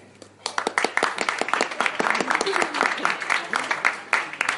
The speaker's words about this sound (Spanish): Así que muchas gracias por su asistencia y compañía. Eh, un aplauso también para ustedes.